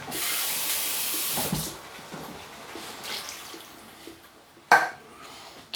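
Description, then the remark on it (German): About one and a half glasses of water pour steadily into a pot for about a second and a half, then splash and trickle faintly, followed by a sharp clink of a vessel near the end. “Sag ich mal so, anderthalb Gläser Wasser reingetan.”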